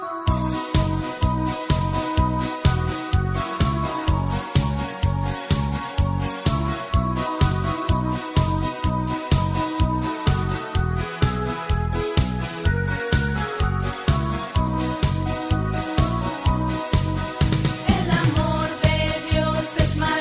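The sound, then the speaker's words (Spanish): A cheerful children's religious song plays throughout, with a steady bouncy beat and bright chiming melody at an even, fairly loud level, with no talking over it. “Vale, vamos a ponerla para que la escuchen los niños, que es muy bonita.”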